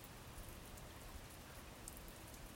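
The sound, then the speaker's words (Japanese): Steady rain falls in a dense, even hiss, with soft patter and scattered drops striking a surface, at the Tsuruya boat inn in Ishijima-chō, Fukagawa. The sound holds at a constant moderate level throughout, with no voices. “間もなく久米八は一足先に帰っていったが、平蔵は鶴屋へ居残り、一人で雨が止むのを待つことにした。”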